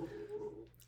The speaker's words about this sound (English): apologies for the background noise. Our our our favorite puppy Zeal is being a little moody right now.